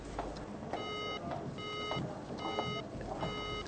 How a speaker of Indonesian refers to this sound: Pas pada saat itulah hubungan telepon putus.